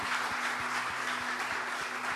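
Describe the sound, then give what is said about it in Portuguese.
An audience applauds the Lord steadily, a dense wash of many hands clapping together, with a regular low thump pulsing underneath about three times a second and a faint steady hum. “Vamos rachar a mão de aplaudir o Senhor.”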